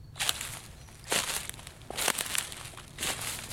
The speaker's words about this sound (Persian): جیلین صدای خشخش برگ را بالای سرش شنید و دینا را دید که از لبه گودال خم شده و سکه های آویزان به گیسوان بافتهش صدا می کردند.